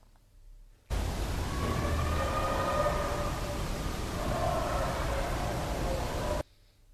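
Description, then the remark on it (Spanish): Eerie wailing cries in an EVP recording float faintly inside a loud wash of static hiss, rising and wavering for about five seconds before cutting off abruptly, with no speech. “Aquí lo primero es que sí se puede decir que es una voz como más de alarido, ¿no? Son como unos alaridos mm.”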